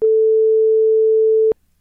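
telephone call tone

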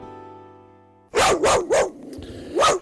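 dog barking

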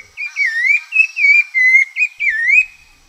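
rufous-bellied thrush song

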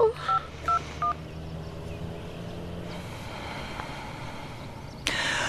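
telephone number being dialed

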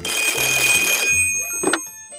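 telephone ringing

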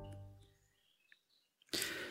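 birds singing outdoors

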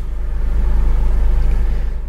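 car driving

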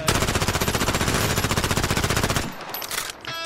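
machine gun fire

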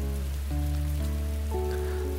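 rain falling

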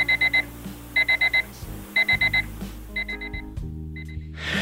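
alarm clock ringing

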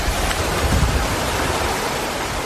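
waterfall rushing

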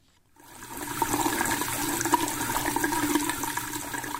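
running water

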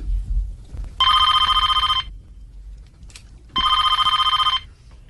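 telephone ringing

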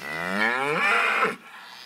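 cow mooing

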